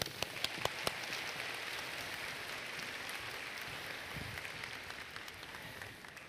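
A crowd applauds steadily, a dense wash of clapping with a few sharper individual claps standing out at the start, holding an even level throughout with no talking.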